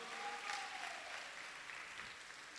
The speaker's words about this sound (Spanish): Dele el aplauso al Señor esta tarde, por favor.